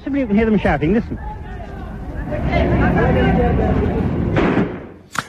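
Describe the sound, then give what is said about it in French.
Loud, frantic human screams from people in the side streets of a Muslim quarter during riots after the independence of India and Pakistan, with burned shops and police having cleared the main street. The screams blur into a dense roar of a panicked crowd, with a couple of sharp bangs or thuds near the end. “La police a évacué la rue principale, mais sur les côtés, on entend les gens crier.”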